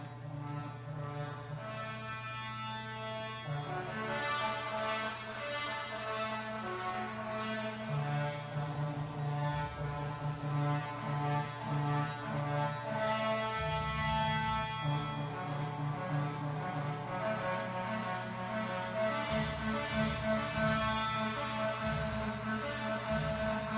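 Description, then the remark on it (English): A military bugle call, El Degüello, the call given by the Mexican army at the Alamo, rings out in long, sustained brassy notes that shift pitch every few seconds, loud and steady for the whole stretch, with a low droning backing underneath and no talking. “What you heard was the bugle call given by the Mexican army at the Alamo called El Deguello, which means something along the lines of slit throat.”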